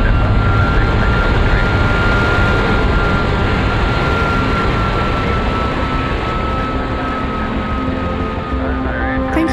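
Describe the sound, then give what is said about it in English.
A spacecraft's engines roar loudly and continuously for several seconds: a dense, steady rumble with a faint whining hum on top, and no voices. “Rear hatch secured. Initiating launch protocols.”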